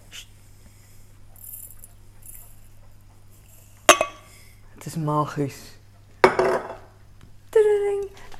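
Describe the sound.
A couple of sharp ceramic clinks ring out, like a spoon knocking against a cup, as someone makes coffee, separated by short bursts of speech over a low steady hum.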